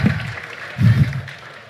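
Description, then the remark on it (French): A crowd applauds and shouts together in a steady, noisy roar, swelling louder twice before easing off slightly, as an audience makes as much noise as it can in a test of its applause at a show. “Moi, je veux un maximum de bruit là Du bruit Ah, c'est un peu mieux, c'est mieux, c'est mieux.”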